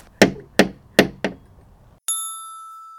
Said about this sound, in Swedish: Vi knackar väl på.